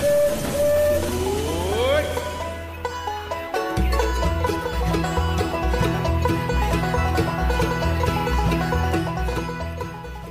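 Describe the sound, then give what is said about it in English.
A Disneyland Railroad steam train, the Disneyland Limited, hisses and sounds a rising whistle over a low rumble as it pulls away from the station for a grand circle tour of the Magic Kingdom, then lively music takes over for the rest. “Welcome aboard the Disneyland Railroad. This is your conductor speaking.”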